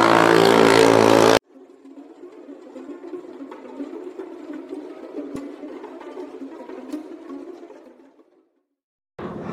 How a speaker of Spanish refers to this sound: Disculpen esa pequeña interrupción, era un vato que iba madre en una moto